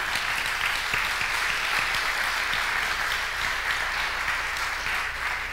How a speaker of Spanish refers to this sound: Pueden aplaudir si quieren.